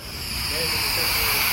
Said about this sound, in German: Dieses Zischen, was ihr hier hört, ist eine Stickstoffflasche, die ist mit Absicht nicht dicht, damit sie uns nicht um die Ohren fliegt.